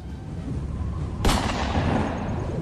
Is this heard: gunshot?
yes